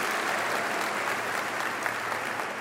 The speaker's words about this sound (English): Um, and, you know, I mean, people clap, so maybe they thought I did a good job.